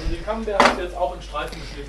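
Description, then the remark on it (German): A single knife chop lands on a cutting board partway through as camembert is cut into strips, not too thin, a short sharp knock while people keep talking over it. “Den Camembert haben wir jetzt auch in Streifen, nicht zu dünn.”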